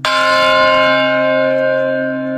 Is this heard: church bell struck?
yes